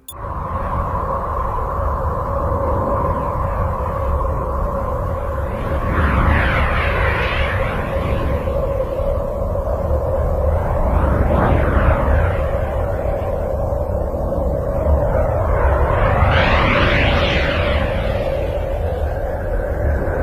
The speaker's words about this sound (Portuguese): É claro! O som será reproduzido no computador da nave. Essa primeira gravação é da magnetosfera de Urano, que atravessamos.